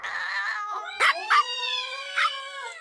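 A dog howls in a long, wavering, high-pitched whine, broken by three short, sharp yips. No one speaks.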